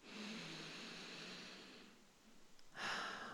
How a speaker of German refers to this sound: Und es gibt fast nichts, was so wirkungsvoll ist wie ein paar bewusste, tiefe Atemzüge. Ich kann das ja gerade mal machen, einfach tief durch die Nase atmen